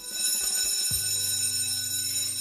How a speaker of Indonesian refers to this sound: Akhirnya, bel sekolah bunyi. Waktunya pulang.